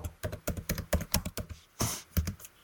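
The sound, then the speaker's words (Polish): Quick, uneven keystrokes clatter on a computer keyboard as someone types in an email address, about a dozen taps in bursts with a brief pause and a heavier key press near the end; no one speaks. “O, o pęku kluczy powiem przy okazji przeglądania internetu, ale my wpiszemy sobie tutaj coś własnego.”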